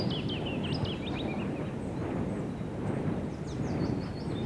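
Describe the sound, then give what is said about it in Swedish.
A steady, heavy low-frequency roar of wind turbines at a wind power industrial area in a forest, recorded within two kilometres of it, constant throughout, while small birds chirp intermittently above the drone. “Ljudet är inspelat både utomhus och inomhus inom en radie av två kilometer från ett vindkraftindustriområde i skogen.”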